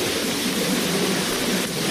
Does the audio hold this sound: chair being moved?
no